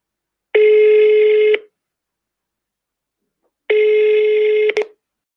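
A telephone call being dialed to a friend: two long, steady electronic ring tones, each lasting about a second, separated by a quiet pause. Loud, with no voices.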